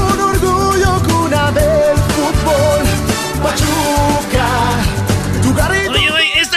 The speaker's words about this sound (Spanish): Hola, este himno del Pachuca, ¿qué lo hicieron los de la Academia Cuarta Generación o qué, qué es esto?